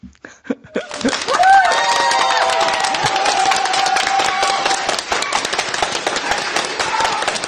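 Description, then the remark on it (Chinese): A crowd backstage erupts into loud, sustained cheering and applause after a few scattered claps, with high whoops and shouts riding over dense clapping that continues steadily to the end. “啊，你们后台很热烈。”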